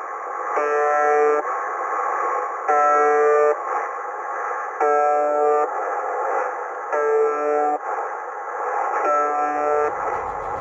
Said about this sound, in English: What you'll hear is a background of monotonous static, interrupted every few seconds by a tone that sounds a little bit like a foghorn. Take a listen.